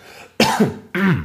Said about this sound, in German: Gesundheit. Tut mir leid, ja. Das war ein, ein Huster, gewesen, aber Kann danke.